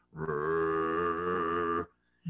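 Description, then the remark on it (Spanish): A person imitates a dog's growl, one long, steady, rumbling throaty sound of under two seconds, loud, followed by quiet. “y empezamos a caminar con la poca luz que teníamos y de pronto empezamos a escuchar un gruñido, un...”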